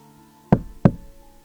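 Two firm knocks on an eighth-floor apartment door by a man delivering a package, about a third of a second apart, with dull, solid thumps over a quiet, steady electronic hum. No one speaks.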